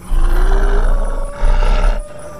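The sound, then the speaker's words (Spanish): A ferocious werewolf roar, loud, rumbling deep and growling for about two seconds with a second surge near the end; no one speaks. “En un lobo violento, iracundo y feroz que destruye todo a su paso.”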